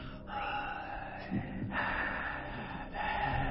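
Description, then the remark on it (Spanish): A voice imitates the slow, heavy, raspy breathing of a horror-movie killer, drawn-out inhales and exhales repeating with short breaks, menacing, with no words spoken. “Cuando, él estaba atrás, que iba a matar a su víctima, y él estaba atrás de la planta y se escuchaba la respiración que hacía.”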